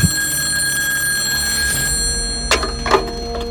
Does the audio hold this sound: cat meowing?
no